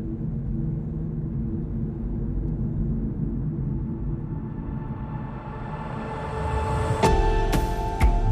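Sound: military aircraft flying overhead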